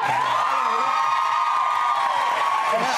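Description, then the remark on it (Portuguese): A studio audience breaks into steady applause mixed with cheers and whoops, a dense, continuous wash of clapping and voices that stays loud for the whole moment. “Ele veio e sentou no sofá, aplausos para eles.”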